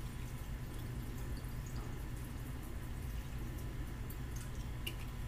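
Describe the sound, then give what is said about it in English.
Water pours steadily into a blender, a continuous low gurgling rush with a few small splashes and drips on top, fairly quiet, with no one speaking. “in my blender and after that I add water well this says Arizona green tea, but I put water in there to get cold.”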